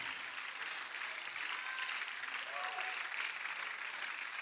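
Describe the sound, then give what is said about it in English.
An audience claps steadily, a dense wash of many hands blending into continuous applause that holds at an even level throughout, with no voices standing out. “Oh, you see some of you are clapping, but you're not believing yet.”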